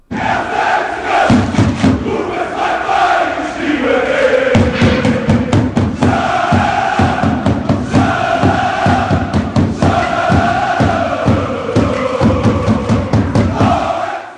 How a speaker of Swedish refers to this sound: jag tänkte att vi skulle lyssna lite på hur det lät när då eh, knappt 20 000 Köln-supportrar eh, vandrade Londons gator några timmar innan den här matchen.